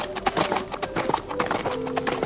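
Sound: horse hooves clip-clopping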